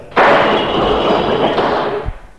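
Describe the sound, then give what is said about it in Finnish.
A loud gunshot bursts out abruptly, followed by a dense, roaring rush of noise that holds for about two seconds before fading, with no voices present. “Sainpas mäki ammuttua sitä.”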